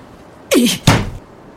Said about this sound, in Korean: 그 말과 동시에 영수는 차문을 닫았다.